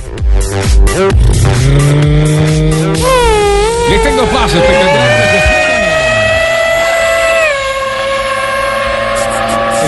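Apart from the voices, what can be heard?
racing car engines roaring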